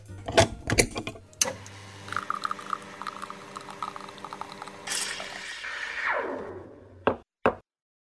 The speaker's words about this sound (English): And now, let's head over to the espresso machine as it's time to brew up another leadership espresso shot.